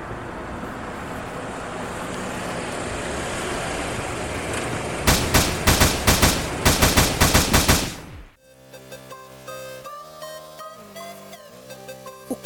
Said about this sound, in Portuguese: carro de … e Shug é alvejado 13 vezes. O rapper é atingido por quatro disparos.